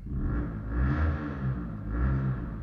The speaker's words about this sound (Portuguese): Está a passar uma moto aqui